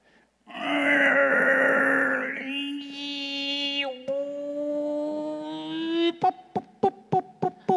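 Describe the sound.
A voice imitates straining effort, as if grapes were straining to come out on the vine: a long, tense groaning hum that rises in pitch, then a quick run of six short, rhythmic grunts, fairly loud, with no other sounds.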